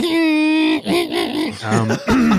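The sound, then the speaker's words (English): A person imitates a printer with their voice: a loud, sustained hum that breaks into warbling, pitch-shifting mechanical whirs over about two seconds, with no words. “sorry, that's my printer. Impression.”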